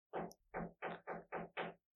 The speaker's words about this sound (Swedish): Det är någon jävel som knackar i min vägg.